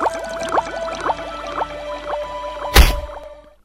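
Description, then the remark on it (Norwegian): A peacock mantis shrimp (Odontodactylus scyllarus), a crustacean, strikes underwater: rhythmic watery bubbling pulses repeat steadily, then a single loud, sharp crack bursts out near the end and quickly fades. “Dette er ei reke som vi på norsk kan kalle enten knelereke, sjøknelere eller påfuglreke, og den tilhører krepsefamilien.”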